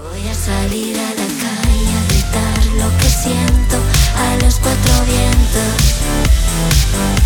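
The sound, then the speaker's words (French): A Spanish-language song plays loudly and steadily, with a full, dense band arrangement and a driving beat; after a brief low-end dropout near the start, it continues without any talking. “Alors d'habitude, on continue à se parler sur la musique d'avant, mais là, on va l'arrêter.”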